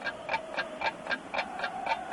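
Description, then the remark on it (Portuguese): A clock ticks steadily and fairly quickly, eight or so crisp, even ticks in about two seconds, with no voices. “Parem os relógios. É intervalo.”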